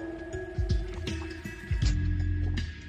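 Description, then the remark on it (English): Sipping and swallowing of water: a few soft, wet gulps and mouth sounds spread over a few seconds, with a faint steady hum in the background and no talking. “Okay, so the last topic, and I'm going to take a sip of water.”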